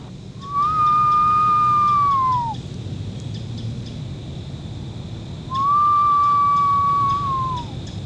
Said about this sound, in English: So you can hear cardinals around, northern cardinals.